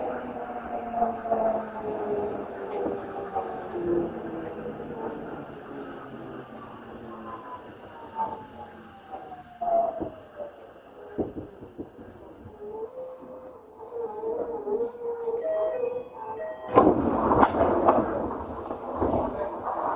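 A Tokyo Metro 7000 series subway train on the Shin-kiba to Nerima run goes along the track with a steady low rumble and layered whining motor tones that slide in pitch, then a louder burst of rattling and clatter near the end.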